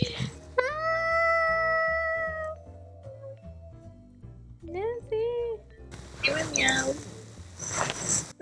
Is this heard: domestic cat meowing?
yes